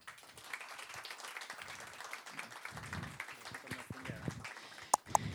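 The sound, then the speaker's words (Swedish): Steady, dense applause from an audience at film breakfast (filmfrukost) number 41, welcoming the morning's guest, fills the whole stretch, a continuous patter of many hands with some voices mixed in, ending with a couple of sharp knocks. “då tycker jag att ni kan ge en varm applåd till morgonens gäst”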